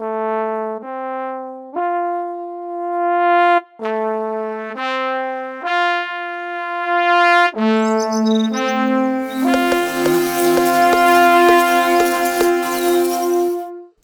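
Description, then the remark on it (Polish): Buzzing, humming tones step through a simple melody, then swell into a dense, loud animal orchestra of buzzes and chirps, with a woodpecker's quick tapping joining in toward the end. “Dzięciole, spróbuj zagrać z nami i zastukać.”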